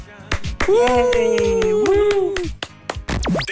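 Two hosts let out a long, loud cheer together after a countdown, holding their shout for about two seconds amid a few sharp claps, followed by a short rising whoop.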